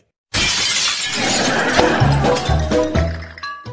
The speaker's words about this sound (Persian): زنگ خرابه با سنگ به شیشه بزنید